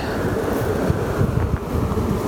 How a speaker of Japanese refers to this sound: 聞こえますでしょうかこの草木のざわめきが いや今旭川旭川っていうあの岡山には河川があるんですけども川があるんですけどもそれの旭川の土手に